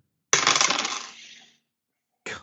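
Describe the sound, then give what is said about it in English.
Dice clatter and tumble across a hard surface for about a second during listen rolls in a tabletop role-playing game, the rattling fading as they settle, then a brief second clatter follows after a pause; the rolls come up seventy-three and twenty-three. Fairly loud. “Now I roll seventy three.”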